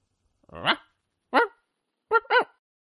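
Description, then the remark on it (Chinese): A small white dog barks four times in short, high-pitched yaps: one bark, a pause, another, then a quick double bark at the end, with nothing else audible. “突然跑进来一只小白狗”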